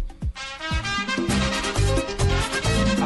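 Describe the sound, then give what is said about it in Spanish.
An upbeat dance track plays loudly on its own, driven by a steady, punchy bass-drum beat beneath bright, layered melodic instruments, with no talking. “pero se puso usted musical, doble.”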